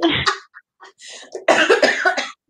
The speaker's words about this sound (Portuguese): Essa tosse tá com cara de alegria.